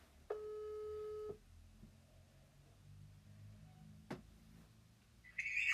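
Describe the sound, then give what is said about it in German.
A telephone ringing tone on an outgoing call: one steady, mid-pitched tone lasting about a second, then low line hiss, a sharp click, and a brief higher electronic warble at the end. “Es piept, es tutet, es klingelt bei ihr.”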